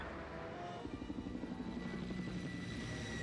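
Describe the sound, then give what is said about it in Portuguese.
A helicopter in an animated cartoon set in New York flies by, its rotor beating in a rapid, steady thump over a constant engine whine that fills the whole stretch. No one speaks. “o Butra aparecendo na tela daquele helicóptero parecia um jogo de videogame de Atari.”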